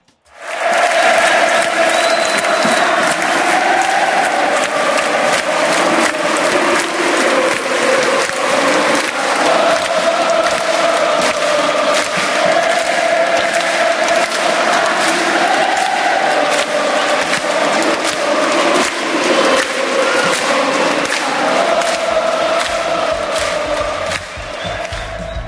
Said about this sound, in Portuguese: sempre se emociona ao ouvir a letra ser entoada por diversas torcidas.